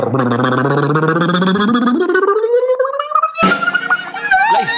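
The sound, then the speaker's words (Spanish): A voice imitates a snare drum roll with a loud, fluttering trilled sound that rises steadily in pitch, then breaks into a sudden burst like a cymbal crash. “dame el redoblante de tremenda vaina.”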